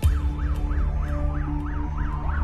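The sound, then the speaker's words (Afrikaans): Sirens of an ambulance and tow trucks racing past a house along the road wail in a rapid, repeating up-and-down yelp, loud and steady throughout, over a low rumbling engine or traffic drone. “20 voor 3, toe hoor ons net sirenes wat toe verby ons huis opjaag in die pad.”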